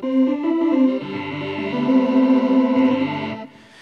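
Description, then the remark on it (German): A sustained, buzzy vocoder synth tone with a vowel-shaped formant, held and played on the synthesizer keyboard, its pitch shifting between a few held notes; the vocoder has up to eight bands. Loud, no talking. “Und ich kann auch diesen Ton halten, zumindest einen Formant halten und kann den Formant auf der Tastatur dann spielen.”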